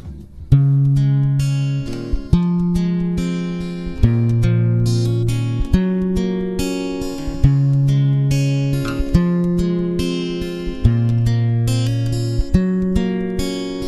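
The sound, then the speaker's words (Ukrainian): An old popular romantic song plays, its instrumental intro carried by sustained, organ-like chords that shift in a steady rhythm every couple of seconds, with soft plucked accents and no singing yet. “От моя улюблена пісня, я знову таки давня пісня, яку всі люблять, вона є дуже популярною серед людей.”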